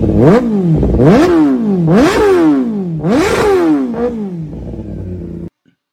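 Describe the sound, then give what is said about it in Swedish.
A superbike motorcycle engine revs hard in repeated surges, pitch climbing sharply and dropping back about four times, loud, before settling into a steady idle that cuts off abruptly. “bland annat då Yamahas berömda OV01 och Suzuki G6R 750 RR, dubbel-R som den kallas”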